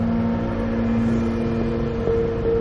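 A Beetle car drives along a wide, straight, dimly lit street with a steady, droning engine hum and low road rumble, the engine tone shifting slightly in pitch toward the end; no one speaks.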